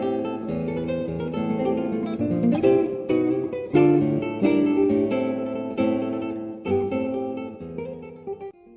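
A steady instrumental piece with sustained harmonic notes and periodic plucked attacks, played fairly loud and close with no voices, consistent with a guitar performing a slow melody.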